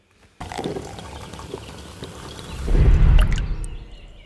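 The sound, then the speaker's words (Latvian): Hot coffee is poured into a cup, a steady splashing trickle that starts abruptly and swells into a fuller, louder gurgle as the cup fills before easing off. “Karstā kafija.”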